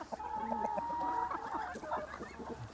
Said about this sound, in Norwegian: Nå har jeg åpna opp her for eh, hønsene. Jeg har eh, gjært inne med sånn viltnetting i hele dette området her. Så nå kan de gå på, på hele den flekken her sammen med, med gjessene.